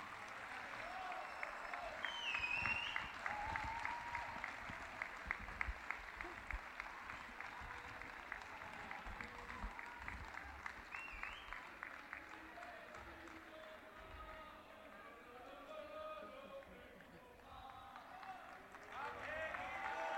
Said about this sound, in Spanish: Segundos no concurso de Murgas 2020 do Entroido Pontevedrés. Aplausos para Equipo Ja.